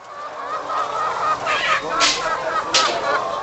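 A dense, unbroken chorus of clucking from about 9,000 caged laying hens in a barn, stacked in six rows of cages along a narrow aisle about 100 yards long, with a few sharper squawks bursting out above the steady din.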